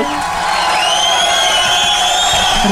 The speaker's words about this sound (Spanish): Oh, esperen, los aplausos se me perdieron. espere, espere. ¿Usted por qué me hace esto? Listo, aquí vamos, aquí vamos. Ahora sí, aplauso, los aplausos.